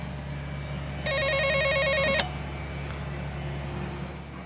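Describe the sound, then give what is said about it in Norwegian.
A doorbell at Henriette's home buzzes once with a steady, warbling electronic ring lasting about a second. It is clearly audible over a low, constant background rumble like traffic or an idling engine. “Jeg ringer på hos Henriette.”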